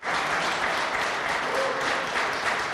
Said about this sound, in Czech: Někteří opoziční poslanci však ocenili rekordního řečníka potleskem.